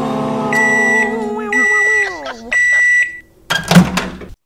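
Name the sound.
microwave oven beeping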